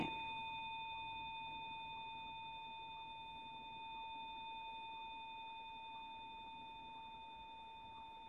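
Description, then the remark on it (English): A 144 tuning fork rings with a pure, steady tone and bright overtones, its tines vibrating, sustaining for several seconds and slowly fading in loudness, with no voices present. “So if I put my finger on that, it stops vibrating. Mm. Um, so that's the 144.”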